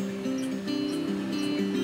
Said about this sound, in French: La rivière doit mesurer plus de 30 mètres de large et elle a tellement de courant que des vagues se forment à la surface